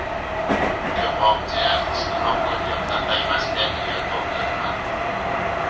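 A JR West 221 series commuter train running from Nara to JR Namba runs steadily with a continuous rumbling hum and a faint electric motor whine, while soft rhythmic clatter and hiss of rolling wheels sit in the background.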